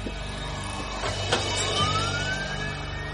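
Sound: police car siren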